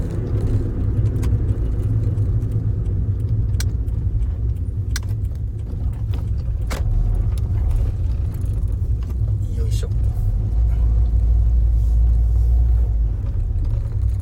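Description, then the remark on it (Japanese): Steady low engine drone and road rumble fill the inside of a moving car for the whole stretch, with small rattles and clicks on top and a voice talking faintly at times. “車です。車ですけど、ちゃんとあの、あのー、固定して”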